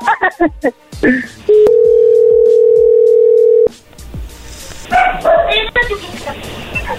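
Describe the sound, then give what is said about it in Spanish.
A flat, steady telephone tone rings out for about two seconds after a dropped call, loud and unbroken, with people talking before it and again once it stops. “oye, perdón, se cortó.”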